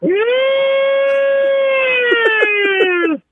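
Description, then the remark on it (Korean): A loud air-raid siren from the opening Normandy landing battle scene of the film Saving Private Ryan holds one steady, buzzy tone for about three seconds, dips slightly in pitch at the end and cuts off, with a few faint clicks underneath near the end. “예, 공습경보 원전에서 네, 네, 시작하겠습니다.”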